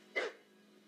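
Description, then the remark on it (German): A single short, sharp dog bark rings out once, then fades into a quiet, faintly humming background with no other sounds. “Bellt ein Hund nie von selbst, sondern nur als Antwort ist er ein Rebell.”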